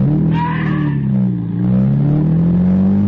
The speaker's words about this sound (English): As soon as he opens it, I step on the gas.